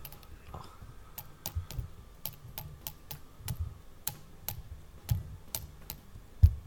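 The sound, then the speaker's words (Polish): A rapid series of sharp tapping clicks on the titanium frame of a headphone headband, about fifteen light knocks in an uneven rhythm, with one louder tap near the end and no voices. “Yy, jakbyś tak tym środkiem tak y, puknął, ten, ten środek tego kabłonka.”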